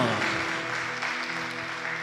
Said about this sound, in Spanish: Creo que eso merece un aplauso, me parece, ¿no? ¿Qué decís?